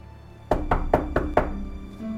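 Five sharp knocks on a door in a steady, evenly spaced rhythm, close and fairly loud, with a faint hum of the room in the background and no voices.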